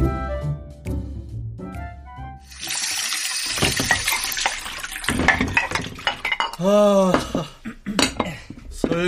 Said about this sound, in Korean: 설거지도 다 끝냈고.